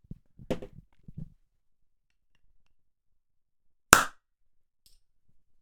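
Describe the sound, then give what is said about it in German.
A bottle of Karl May is uncorked with a single loud, sharp pop that rings briefly, preceded by a few soft handling and rustling noises, then near silence. “So, kann ja jemand mal das aufmachen?”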